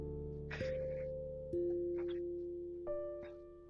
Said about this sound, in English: Sorry if you hear that sound in the background, just my cat.